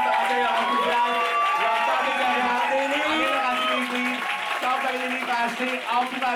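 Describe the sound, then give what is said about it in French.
A live audience at the season's final recording of the show Deux Fifs le matin at Cabaret Berlin applauds and cheers loudly and continuously, with clapping blended into a dense wash of shouting and whooping voices that holds steady throughout. “Donc, applaudissez-vous!”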